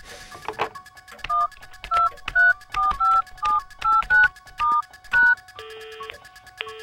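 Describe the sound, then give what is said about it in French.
Telephone keypad tones beep in a quick, slightly uneven run of about a dozen short presses after a faint click, ending with a longer steady tone, as someone dials a phone to call a journalist. Clear, no voices. “Je l'appelle aussitôt, comme ça le tueur ne pourra pas l'appeler.”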